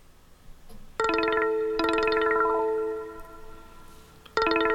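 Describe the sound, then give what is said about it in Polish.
A bright electronic mobile phone ringtone melody plays on its own as a preview while ringtones are browsed and selected with a joystick, sounding in short looped bursts of rising chime-like tones with a synthetic, slightly distorted timbre, then restarting near the end. “To jest kolejny dzwonek.”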